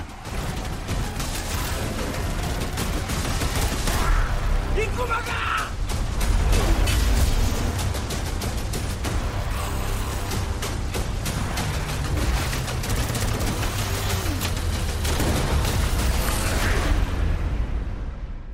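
Rapid bursts of machine-gun fire crackle through a dense, loud mix in a film trailer for a film in the official selection of Cannes 2020, with booming blasts and harsh growling cries layered throughout, building steadily over the whole stretch with no speech.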